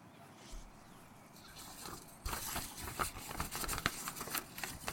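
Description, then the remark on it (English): Crinkling and rustling of paper being crumpled and handled, starting quietly then turning into a steady run of sharp crackles over the last few seconds. “Paper.”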